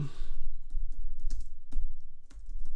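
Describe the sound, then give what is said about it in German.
A quick, irregular run of key clicks from someone typing a search on a computer keyboard, misspelling it though the search still finds it at once; sharp taps scattered over a low steady hum, with no one speaking. “jetzt schreibe ich das falsch, aber ja, findet er sofort.”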